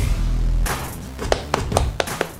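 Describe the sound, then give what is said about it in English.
A soft, polite golf clap as the No Bull show starts: a handful of light, separate hand claps in a slow, uneven rhythm, each a sharp brief snap, following a low rumbling hum. “significantly toning it down there with just the golf clap opposed to the yeah, let's go that we normally get”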